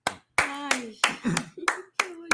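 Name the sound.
hand clapping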